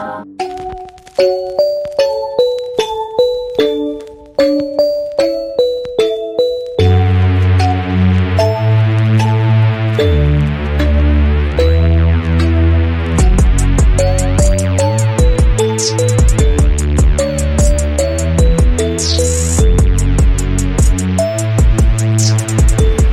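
A pop song opens with a bright, bell-like melody of plucked chiming notes, then swells into a full, loud arrangement with heavy bass and a steady driving beat.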